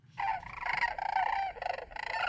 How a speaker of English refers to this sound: So here's some crane calls for us.